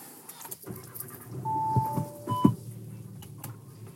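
Steady low rumble of a car interior while driving to PT, with a couple of brief electronic tones and small rattling clicks over the road noise; no one speaks.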